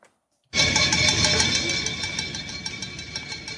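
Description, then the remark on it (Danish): A street protest crowd in Brazil, protesting against President Jair Bolsonaro, erupts after a brief silence into a loud, steady wash of noise, with sustained horn-like tones and a rapid pulsing rhythm running through it. “Det her, det er lyden af protester i gaderne i Brasilien.”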